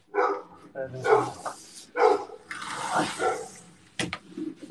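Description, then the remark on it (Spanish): A dog barks in a few loud bursts spaced about a second apart, with a rushing, hissing noise like running water filling the middle stretch, then a sharp click and quieter yips. “Perro aquí.”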